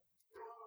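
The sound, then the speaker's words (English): A dog lets out a single brief, high whimper, a thin tonal whine lasting about half a second, faint, in the background. “here's the real life of our of our podcasting you can hear my dog in the background probably”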